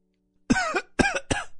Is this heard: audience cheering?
no